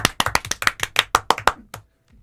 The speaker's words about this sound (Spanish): Así que le damos a usted un aplauso, un Score, que se suma.